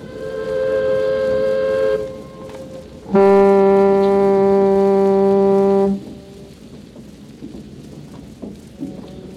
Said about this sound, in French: Les bateaux, en amont et en aval, faisaient de même, et c'est ce singulier concert de sirènes qui nous réveillait vers 7h30 du matin.